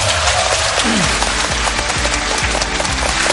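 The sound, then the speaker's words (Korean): Sustained applause from a large lecture audience thanking Professor Lee Ik-joo after his talk: a dense, steady clatter of many hands clapping at once for the full few seconds, with no one speaking over it. “오늘 긴 시간 명 강연 펼쳐주신 우리 이익주 교수님께 다시 한번 감사의 박수 부탁드립니다.”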